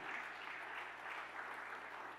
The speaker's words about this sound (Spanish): Le otro aplauso fuerte a papá.